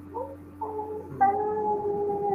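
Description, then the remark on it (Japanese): A cat meows alone, two short plaintive calls followed by a long, drawn-out, louder yowl that carries to the end, over a faint steady hum. “え、クマが鳴いてるんですかこれ？”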